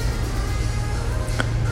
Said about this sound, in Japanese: ちょっと今外の音がうるさいかもしれないですねあの大型バスが通ってたりして